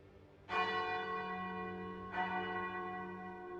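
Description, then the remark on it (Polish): Two deep church bell strikes ring out as the bells strike noon, about one and a half seconds apart, each with a sharp onset and a long shimmering hum that lingers between them. No voices are present. “Dzwony kościoła wybijają południe.”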